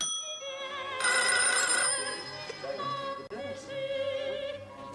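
A bright electronic telephone ring with a steady, tonal warble sounds fairly loud for several seconds, with a low background hum beneath it and no voices.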